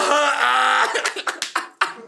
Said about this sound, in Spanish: ¡Tocedera! ¿Quién tose más? ¡Sin parar!